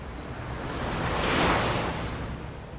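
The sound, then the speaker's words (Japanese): A wave washes in and recedes on a sandy beach in Kamakura, Japan, at dusk, a broad hissing surge that swells to a peak midway and fades again, with steady low surf rumble beneath and no voices. “こうして新一と砂浜に座って夕暮れの海を見ていられるんだもの”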